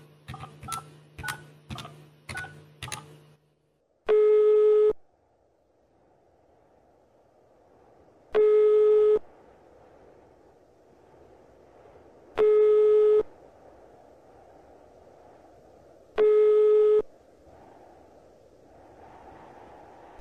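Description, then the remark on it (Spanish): A man dials a telephone at an eatery: a quick run of five beeping touch-tone dial presses, then a steady telephone line tone that sounds in long, evenly spaced pulses four times, with faint background hum between them. “Se dirige directamente hacia el teléfono de este lugar.”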